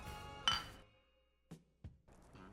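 Glasses clink together in a toast: a bright, ringing tap near the start, followed by a couple of softer knocks and handling noises.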